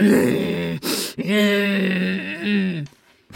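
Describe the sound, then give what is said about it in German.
A voice imitates a woman's angry growl: a loud, drawn-out grumbling groan, a sharp breath, then a second longer growl that trails off, with no words spoken. “Und dann ist sie irgendwie sauer geworden, hat angefangen zu brummen, so.”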